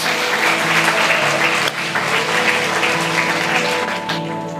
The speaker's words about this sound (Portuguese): Você concorda com isso? Então dê uma salva de palmas, Senhor, amém? Glória a Deus.